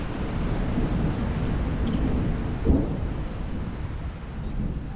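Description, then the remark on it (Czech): Steady rain hisses throughout over a continuous low rumble of thunder, with one brief sharper crack near the middle; no voices, just the storm at a fairly even level. “Teďka začíná pršet, je trošku kyselejší, ale to nevadí.”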